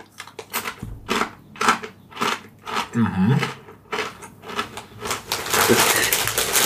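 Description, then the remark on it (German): Close, loud crunching of salted pretzels from a bag left open for days, eaten at a microphone: a rapid series of crisp, brittle cracks in uneven bursts, with a brief murmured sound of approval from the eater. “Ein sehr leckeres Geräusch, dieses Knurps, mhm.”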